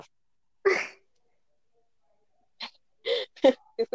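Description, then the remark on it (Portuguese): A dog barks once, then after a pause lets out a quick run of four or five short, sharp barks, clear with no talking over them. “Eu também tô ouvindo um cachorro, só que aqui.”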